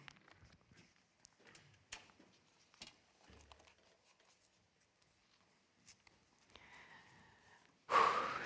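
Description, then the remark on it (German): A person panting heavily after hurrying forward on a Sunday morning: quiet, uneven puffs of heavy breathing mixed with soft shuffling steps, closing in a sudden loud, rushing blast of breath right at the end. “Ich lasse mich schnell nach vorne schnaufen.”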